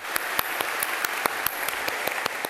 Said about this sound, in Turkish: Eşi, ailesi, sevenleri düzenlenen törenle son kez alkışladılar